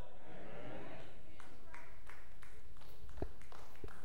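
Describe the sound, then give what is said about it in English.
Scattered, fairly faint applause from an audience during a sermon, a loose series of claps building up after a moment, with a low murmur underneath. “Yeah, you could clap, that's fine.”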